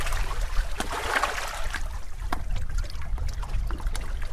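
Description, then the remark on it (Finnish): Sea water laps and trickles at the seashore beside a terrace in a steady, irregular wash, with small splashes and drips over a low rumble; no one speaks. “Istutaan täällä terassilla meren rannalla.”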